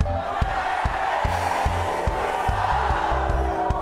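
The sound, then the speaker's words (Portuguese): A large audience shouts loudly together in unison, a dense, sustained roar, with a steady pulsing beat of music running underneath. “Eu quero te dizer nessa noite, grite bem alto, com todo o teu pulmão, com restituição.”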